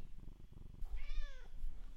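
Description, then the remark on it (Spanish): A domestic cat purrs in a low, steady rhythm, then gives one clear, drawn-out meow. No one speaks. “gatito Pedro, ¿tú consumes pollo? que sí?”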